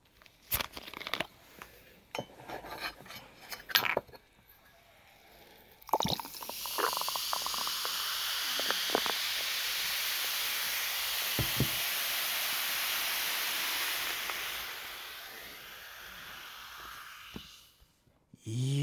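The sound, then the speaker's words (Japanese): A carbonated drink fizzes steadily after a few clicks and a sharp pour, a bright hiss of bubbles holding for about ten seconds before fading out, with no voices. “でも炭酸の音と聞いて一番に思いつくのはあの蓋を開ける時のプシッって音ですよね、えー、メッセージ来てます炭酸の幸せな音と聞いて海鮮時のプシュしか出てこなかったあなたは二流です海鮮時より注ぐ時の方が飲むという行為に一歩近づいているためより幸せなのです”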